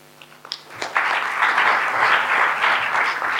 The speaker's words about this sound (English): Thank you um, so much. You can just have one more round of applause for those three amazing contributions. That was great.